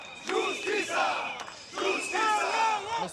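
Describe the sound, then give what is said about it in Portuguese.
A crowd of Portuguesa football fans on Avenida Paulista chants loudly in unison, crying out for justice in protest after the club's relegation to Série B, delivering two sustained, sing-song phrases separated by a short pause, their massed voices rising and falling together. “Os adeptos gritavam pela justiça”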